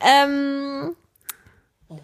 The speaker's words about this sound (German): Jetzt träumt unser Hund. Das war der Hund, das war nicht das Kind? Nee, Kind schläft, der Hund träumt